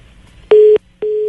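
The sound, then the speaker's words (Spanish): Two short, steady beeps of a mobile phone disconnect tone after a call drops, evenly spaced and fairly loud, with a faint low hum between them and no voices. “Vamos a ver si logramos recuperar eh, la comunicación”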